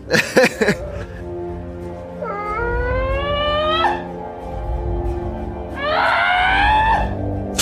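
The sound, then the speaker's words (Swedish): Nicolas Cage screams in panic twice, each a long, strained, rising howl lasting over a second, loud, with a short burst of clattering noise at the very start and no talking. “Nej, han skriker han som en jävla panik. delfin eller någonting.”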